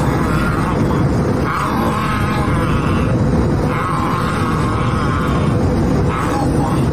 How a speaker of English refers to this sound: The guy on uh, today's Spirit airline flight is um, more like a, a rabid dog, That's him growling and eating his mask.